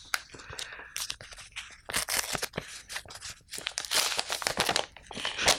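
A paper envelope being torn open and crinkled, a series of sharp ripping bursts and rustles in uneven rhythm, fairly loud, with no voices over it.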